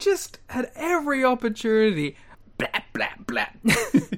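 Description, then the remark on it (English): A man talks, then mimics with his voice a knife stabbing someone in the back: three quick, punchy, percussive syllables in a rapid burst, fairly loud. “that was the sound of a knife stabbing someone in the back.”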